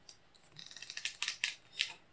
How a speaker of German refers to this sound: der hat hier nebenbei eine, eine das ist eine Kuckuck-Figur, eine Actionfigur und das ist ein furchtbares Geräusch, das ist mir so im Kopf. Weh. Ich hasse dieses Geräusch. Das ist so ganz schlimm für mich.